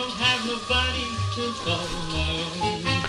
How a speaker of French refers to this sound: Tout ce que tu entends là, c'est des enregistrements pour fifone datant des années 50 ou 60, parce que l'engin a été tué par le succès du micro-sillon et il est tombé dans l'oubli.